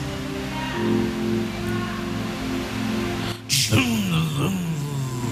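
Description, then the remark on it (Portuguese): A voice imitates a Volvo car engine starting: a steady low droning hum, then a sudden burst and a rising-then-falling revving tone, moderately loud. “Ó, barulho de Volvo, gente.”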